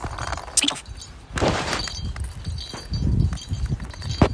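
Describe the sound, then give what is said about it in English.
A small bell on a young girl's shoes jingles in quick, uneven bursts as she walks along outdoors, the tinkling rising and fading with each step against a soft background of outdoor noise. “The bell is my daughter. I put a bell on her shoes so I know where she is um, just easier.”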